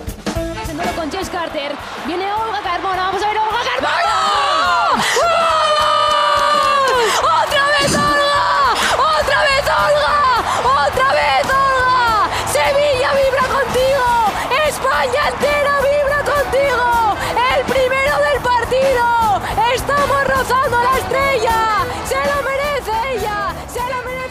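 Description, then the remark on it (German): A large stadium crowd roars and cheers after the USA's goal at the Women's World Cup, a dense wash of shouting and whooping voices that swells quickly and stays loud and sustained throughout. “Also wenn man weiß, wie oft ich äh, das Tor der USA zur Weltmeisterschaft hier eingespielt habe bei diesem Turnier, dann gewöhnt euch mal an diesen O-Ton, liebe Hörerinnen und Hörer.”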